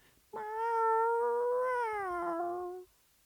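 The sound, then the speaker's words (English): A single long, drawn-out, loud meow from a cat being carried away in a box, rising slightly then sagging in pitch over about two and a half seconds, with no talking. “She feels the regret as she watches him carry off the cat in the box and she hears him meowing.”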